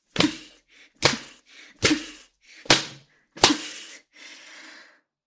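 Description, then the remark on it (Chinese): A leather whip held in the hand lashes a person five times, sharp loud cracks roughly a second apart, each followed by soft breathy gasps, ending in a longer, fainter exhale. “就让我用手里这根皮鞭，把你变成一条彻头彻尾的贱狗吧。”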